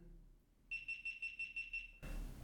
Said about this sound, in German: Die eine Kamera geht aus. Ja, genau, das ist der äh, Signalton. Ja, das ist nicht, dass wir überziehen oder so.